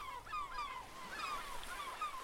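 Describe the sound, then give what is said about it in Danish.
A flock of seagulls crying, their harsh, overlapping calls repeating throughout with no pause, fairly quiet and set against the wind and a faint background rushing of the sea. “Men han kunne kun høre vinden, den svage brusen fra havet og mågernes skrig.”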